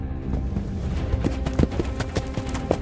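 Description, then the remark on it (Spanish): Rapid hoofbeats of a black horse galloping along a narrow path beside a river pound steadily with a driving, irregular rhythm, loud, with no voices present. “A horcajadas, en un caballo negro, por el estrecho camino paralelo al río, avanzaba la muerte en un frenético y casi ciego galopar.”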